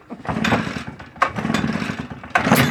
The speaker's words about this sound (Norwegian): All right. Da starter jeg løvblåseren.